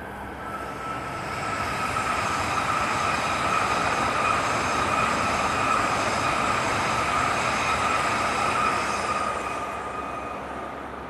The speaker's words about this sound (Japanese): そんなに音しなかったですね割とこうヒューっとねそんなにこう速いスピードでもなくて音も割とね皆さん分かると思いますけどそんなにというかほとんどしないというか静かに通って。でも目の前をね間違いなく北海道新幹線が青函トンネル函館側からねトンネルを抜けてこの本州にやってきたということで